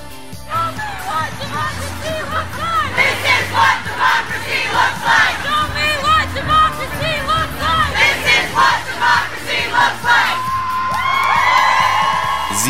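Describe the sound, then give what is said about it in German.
A large protest crowd at a Women's March solidarity demonstration in Kassel, Germany, chants in rhythmic, repeated bursts of many raised voices, then breaks into a swelling roar of cheering and whooping near the end, loud throughout. “sind laut, sie sind bunt und sie sind verdammt viele.”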